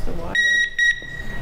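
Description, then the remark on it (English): Two shrill electronic beeps, a long tone then a shorter one, each with steady high-pitched harmonics, from a security guard's handheld metal detector wand at a school, finding the metal underwire of a student's bra under her shirt, with voices and background noise underneath. “What you're hearing right now is that wand finding something metal under a student's shirt.”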